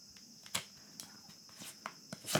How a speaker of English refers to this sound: Any of the crickets outside?